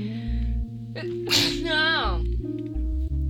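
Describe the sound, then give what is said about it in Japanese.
One sharp sneeze: a quick breathy burst followed by a short voiced, wavering tail, set against a steady low background hum. “待ってくしゃみ”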